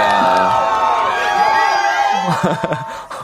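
A dense roar of fans cheering, with excited shouts and whoops layered over a recorded crowd sound effect, loud and continuous throughout, swelling with scattered high yells near the end.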